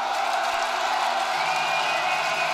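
A concert crowd in Lyon cheering and shouting, a dense, steady roar of many voices that stays loud and unbroken from start to finish.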